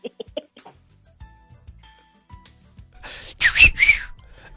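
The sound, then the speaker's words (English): A person whistles: faint thin tones at first, then a loud, breathy burst of air carrying a short pitched whistle near the end. No one speaks. “if i could whistle i would whistle but i can't maybe you could do it for me”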